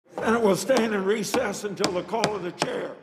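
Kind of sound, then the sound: impact, knocking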